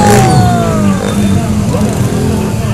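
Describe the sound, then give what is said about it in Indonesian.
A car engine revs loudly as it passes by, its pitch sliding downward, with steady road noise and a low rumble continuing throughout. “mobil mau kemana kali oh.”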